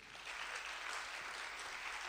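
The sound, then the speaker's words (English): An audience claps steadily for the guests, a dense and sustained round of applause filling the space at moderate loudness, with no voices standing out over it. “Je crois qu'on peut applaudir déjà nos, invités.”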